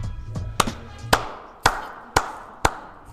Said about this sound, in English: For those of you, I'm clapping right now because Ben Simmons, you you are making me proud, man he finally did it.